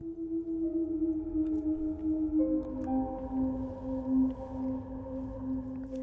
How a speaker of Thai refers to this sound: เขาว่าเวลาหมามันเห็นผีมันจะหอนเสียงยาวแบบนี้ ผมเริ่มประวัน แล้วไอหมาพวกนั้นก็ดันหอนไล่กันมาเรื่อย จนมาหยุดตรงบันไดหน้าบ้านย่าผมนี่เอง มันหอนยาวราวกับเป็นวงคอรัสที่ไร้เสียงดนตรีประกอบ